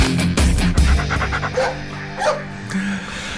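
A dog in a studio gives a few short barks near the start, followed by quicker breathy panting and small whimpering sounds, all fairly loud with no talking.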